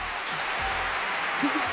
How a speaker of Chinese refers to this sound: 另外还有一个喜报，我们出品的科幻选集《造访星辰，飞往太空的中国故事》在第十四届江苏省优秀科普作品评选活动中获得了科普图书类三等奖，鼓掌。